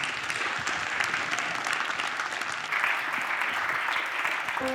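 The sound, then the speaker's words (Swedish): An audience at Kontext, a literary stage in Luleå, gives a warm round of applause to welcome an author and the interviewer. Many hands clap in a dense, even wash at moderate loudness that holds through without fading, with no one speaking over it. “Det kallar jag en varm applåd”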